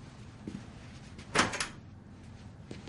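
A door is opened by a boyfriend walking away, with a short, sharp creak and clunk of the handle and latch, a brief bright burst amid faint background rustling, followed by quieter soft knocks.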